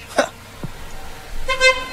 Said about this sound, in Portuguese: O cara passa e buzina aqui, ele responde lá, opa! Claro, né? Claro, o pessoal tá buzinando é, pra nós, é educado, né?